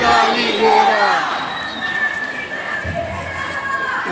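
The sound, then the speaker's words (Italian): A large crowd at a pro-Palestinian demonstration chants and shouts together in the rain, voices overlapping in a loud, sustained roar with rising and falling tones, no single speaker standing out. “è questa la manifestazione dei palestinesi che non è finita, non è finita, è ancora un paio di minutini, vi faccio godere fino in fondo.”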